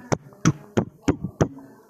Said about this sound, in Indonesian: mau lo mau denger suara apa lagi suara gue jalan kedenger nggak nggak ya gitulah suara orang jalan